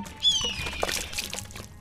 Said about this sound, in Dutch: Haviksoog, kun jij de waterfles omgooien?